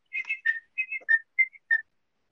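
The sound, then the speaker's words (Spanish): A person whistles a bird-like two-note phrase several times in quick succession, bright and clear, mimicking a great tit's call with no talking. “De hecho, también leí que hay carboneros que hacen el sonido de con dos sílabas y otros con un dialecto diferente con tres sílabas.”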